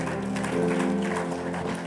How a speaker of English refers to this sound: Give the Lord a clap offering.